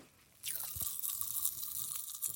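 Dense crackling and fizzing at the mic, a rapid scatter of tiny pops and snaps of popping candy bursting in a mouth, continuous after a quiet start, with no talking.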